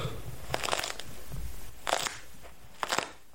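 Three muffled, crunchy snaps as a piece of wooden crate wrapped in cloth is broken in the hand, like bones cracking, spaced about a second apart, with no talking.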